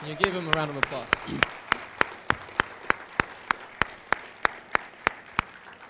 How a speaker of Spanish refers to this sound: Cuando usted conoce lo que Dios ha hecho por ti y por mí, Puede, puede darle un aplauso grande a Él, amén.